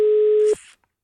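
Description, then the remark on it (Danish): A telephone rings with one loud, steady electronic beep lasting about half a second, then cuts to a short burst of hiss. No one speaks. “han kigger ned på telefonen, den ringer.”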